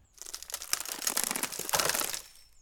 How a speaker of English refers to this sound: Oh, hell. Something's rattling in the bushes.